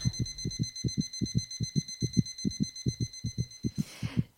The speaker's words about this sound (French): Je ne sais pas si vous, euh, derrière votre poste à galène, vous avez ressenti les mêmes choses que nous ici, avec ce casque sur les oreilles où on entend vraiment ces battements de cœur.